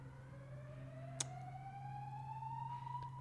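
A building fire alarm sounds continuously, a steady electronic tone slowly sliding upward in pitch over a constant low hum, with one sharp click partway through. No one speaks.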